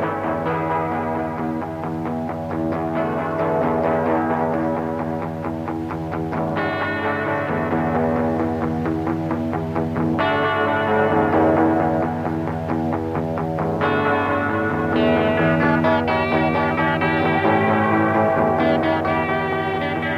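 Two electric guitars on side 1 of a tape: a student plays a lead solo line picking out a melody while his guitar-school teacher plays steady rhythm chords, with an echo effect giving a reverberant tone. Even volume throughout, no voices.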